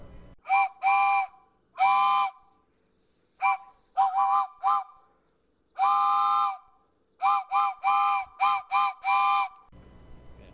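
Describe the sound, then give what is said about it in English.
A loud train whistle sounds a series of short toots and longer blasts in an uneven rhythm, with brief silences between them and no voices. “Okay, well the train's backed up now.”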